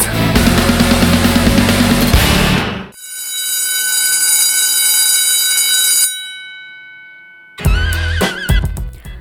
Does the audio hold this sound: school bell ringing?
yes